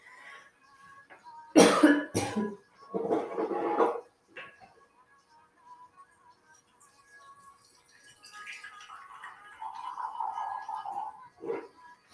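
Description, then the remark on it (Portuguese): A loud pair of sharp coughs from a person who needs to drink water, then a few rougher, softer coughs, followed by quieter throaty, gulping sounds near the end. No one speaks. “Eu preciso beber água, porque eu vou começar a tossir.”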